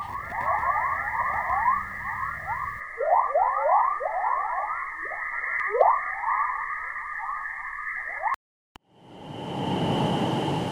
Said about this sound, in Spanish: Acá tenemos otro tipo de sonido también de la Tierra, que también son, estas son ondas de plasma.